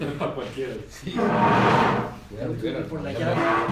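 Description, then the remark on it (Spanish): A door opens with a broad, scraping whoosh lasting about a second as someone enters, loud, while voices talk before and after it. “Se la puerta.”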